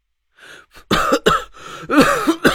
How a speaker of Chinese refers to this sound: 我趁机死命挣脱了他的胳膊，拍着胸口咳嗽了半天。